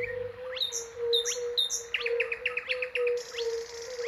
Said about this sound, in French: un virtuose. Le rossignol progné vient compléter l'ensemble.